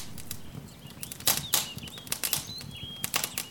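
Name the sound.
crackling fire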